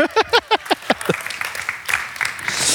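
A few short voiced bursts give way to audience applause, a dense, steady patter of many hands clapping that grows a little louder toward the end.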